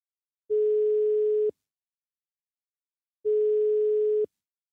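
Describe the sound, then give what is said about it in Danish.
Two long, steady ringback tones from an outgoing phone call as a Frihedsbrevet journalist tries calling back again, each about a second long and separated by a pause of nearly two seconds. No one speaks. “Prøver vi at ringe op igen.”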